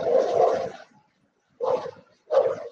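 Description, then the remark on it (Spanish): A dog barks three times, starting with one longer, drawn-out bark and then two shorter ones after a brief pause, fairly loud, with no voices. “Se escucha un perro, ¿de quién es?”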